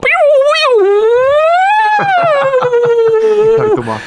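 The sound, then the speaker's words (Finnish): A loud, sustained electronic whine from a micro synthesizer played at a gig, its pitch sliding up and wavering before dipping down, with faint clicks and murmurs underneath toward the end. “ja sitten ne pisti sen soimaan sen syntetisaattorin. Ja se oli semmoista niinku vinkunaa.”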